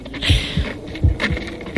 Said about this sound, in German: Ist das tatsächlich Herzschlag oder ist das was anderes? Es ist tatsächlich Herzschlag.